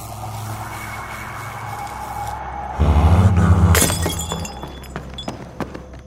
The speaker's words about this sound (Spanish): Escuché el vaso que se rompió desde mi habitación. ¿Escuchaste eso?